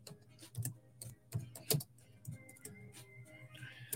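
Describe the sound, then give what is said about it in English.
Sparse, irregular clicks of typing on a keyboard, a dozen or so soft key taps over a low steady hum, with no voices. “I'm just typing this for Instagram.”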